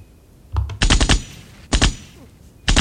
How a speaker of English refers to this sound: and we begin with some gunshot.